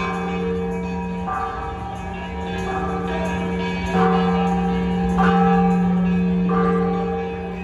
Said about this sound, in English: What you're hearing are the hypnotic bells from the Temple of San Diego in central Guanajuato City. The bells reverberated throughout the city as the dead made their return to reunite with their loved ones.